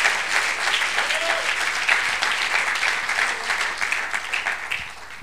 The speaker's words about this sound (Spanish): A ver, démosle un aplauso a Dios porque es bueno, hermano. Gloria a Dios. Gloria a Dios.